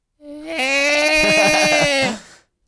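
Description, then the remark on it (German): A whale song recording is played back: a single loud, drawn-out whale call, a bright wailing tone rich in overtones that steps up slightly in pitch and holds for about two seconds before cutting off. “Ah, also Wahlmusik.”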